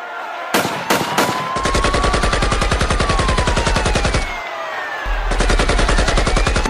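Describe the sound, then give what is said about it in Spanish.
Loud bursts of rapid gunfire during a riot, a few single shots then sustained automatic fire, pausing briefly before another burst, with a faint whistling tone sweeping beneath; no voices. “No, Joseph, se están recagando a tiros y fracasos.”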